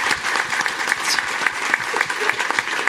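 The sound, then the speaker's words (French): An audience claps steadily for a columnist after his first column, dense overlapping handclaps forming a continuous, fairly loud wash of applause with no voices standing out. “On peut applaudir Sylvain pour cette première chronique alarmiste.”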